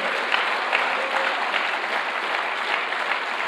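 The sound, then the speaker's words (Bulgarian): An audience applauds steadily, giving an offering of applause to God, many hands clapping in a dense, even wash of sound that holds at a constant level without any speech. “О, хайде, дай му едно дарение на ръкопляскане, ако искаш Бог да те помаже.”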